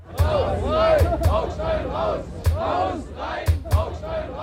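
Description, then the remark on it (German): A large crowd, reportedly 4000 listeners at a panel discussion in the Audimax of Hamburg University on 1 November 1962, shouts and yells all at once in a dense, continuous roar of many voices, with sharp bangs or claps punctuating the din every second or so. “Eine Podiumsdiskussion im Audimax der Hamburger Universität. Die Veranstaltung am Vortag wurde abgebrochen. Angeblich 4000 Zuhörer.”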